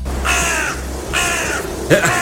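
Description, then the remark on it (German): Two loud, harsh caws from crows at a parliament building with a dome ring out in succession, followed by the start of a third, over a low steady background rumble. “Deshalb hat diese Kuppel wegen dieser Krähen schon Risse bekommen.”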